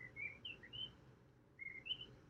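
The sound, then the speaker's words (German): Birds chirp in the background in short, bright bursts, a few quick calls early on, a pause, then more near the end, over a low steady hum with no one talking. “Ähm, das, das Vögel da im Hintergrund?”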